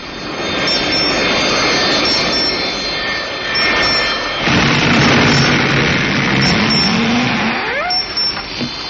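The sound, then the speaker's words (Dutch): A loud, sustained roar of rocket engines fills the whole clip as rocket engine 3 is fired, then engines 2 and 4, surging in intensity midway, then a rising whine sweeps upward near the end. No voices are heard. “Raketmotor 3. Vuur. Nu.”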